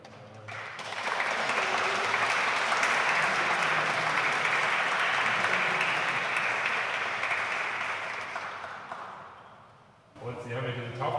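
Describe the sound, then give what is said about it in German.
A crowd claps steadily for about nine seconds in a dense, even burst of applause that slowly thins and fades, then a voice starts speaking as it dies away. “Nochmal ein Applaus für dich.”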